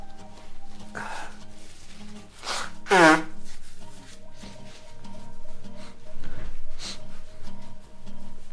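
A loud, honking nose blow lands midway, with a few softer sniffs and rustling before and after, against a quiet low hum; the person has a long-lasting runny nose rather than a cold.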